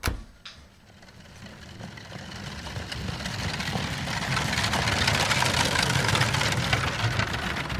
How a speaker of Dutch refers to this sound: Voor mij is het geluid van draaiende wielen het geluid van gevaar. Het geluid van zwarte, vrije inwoners van de Republiek die een koets ingesleurd worden.